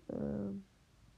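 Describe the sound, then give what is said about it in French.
The speaker's own mobile phone makes a single brief buzzing tone, about half a second long and clear, then fades into quiet background noise. No one speaks. “Et tout simplement, euh, si vous entendez oui là c'est mon téléphone, donc vous, vous inquiétez pas, c'est”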